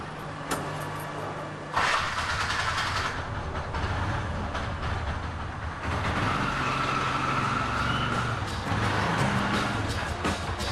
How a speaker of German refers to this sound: Unübersichtlich, chaotisch, ohrenbetäubend laut und stinkend. Es ist der alltägliche Verkehrswahnsinn in Delhi.